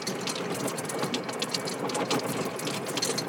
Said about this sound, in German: Oh, auf dem Grün sind jetzt äh, gerade die Sprenger angegangen. Die Wasser, die, die oh, das sieht aber sehr schön aus.